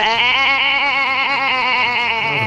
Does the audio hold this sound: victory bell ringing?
no